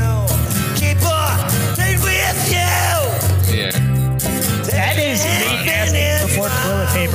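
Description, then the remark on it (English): A loud, dense rock cover song plays throughout, with pounding bass and drums under a strained, yelling male vocal that bends and wails across the whole stretch. “It does sound like he's getting a rectal exam during the, while he's.”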